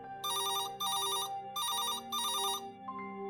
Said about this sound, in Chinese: 他说两天都是晚上十一点，结果到了晚上十一点，电话真的响起来。